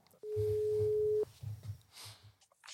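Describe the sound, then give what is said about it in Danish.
A single steady telephone ringing tone while placing a call to a man in Ringe, a pure hum lasting about a second, while low murmuring voices carry on underneath and continue after it stops. “Øh, men de har startet et nyt hold op, og jeg synes lige, vi skal ringe til ham og høre. Vi skal ringe til ham fra Ringe.”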